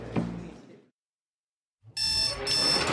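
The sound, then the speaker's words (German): A loud, shrill alarm clock, set for shortly before eight in the morning, bursts into a continuous harsh ringing after a moment of silence, steady, following a brief indistinct sound at the start. “Am nächsten Morgen habe ich mir den Wecker für kurz vor acht gestellt.”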